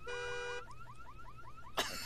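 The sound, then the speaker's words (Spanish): The alarm of the speaker's own car, heard far off, shifts from a wavering electronic tone into a quick run of repeated rising chirps, then a short harsh burst of noise. No voices are heard. “Y la, alarma. Todavía. No, se oía lejos allá, güey.”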